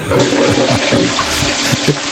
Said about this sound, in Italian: Ah, ah, addirittura lo sciacquone, grande meme radiofonico.